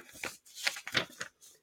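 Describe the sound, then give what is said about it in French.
Paper pages rustle in a handful of quick, irregular crinkling bursts, moderately loud, with brief pauses between them and no talking, as someone searches through their notes. “alors, je recherche mes notes, désolé pour le bruit des pages”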